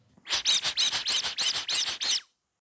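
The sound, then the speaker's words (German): A rubber duck from a collection squeaks about eleven times in quick, even succession, each squeak shrill, filling two seconds with no talking underneath. “Also bitte, liebes Quietscheentchen.”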